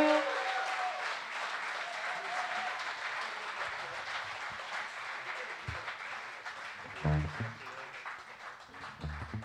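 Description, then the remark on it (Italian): A crowd claps steadily in a dense wash of applause, with a few louder bursts and a voice briefly breaking through near the end. The audience is applauding a guitarist from Brescia at a live music performance. “Quindi se fate un applauso un po' più croccante.”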